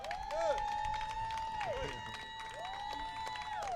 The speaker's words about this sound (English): I want y'all to give a strong round of applause for our man, our, our myth, the legend, Baba Malik Rahim. Give it up for the Baba.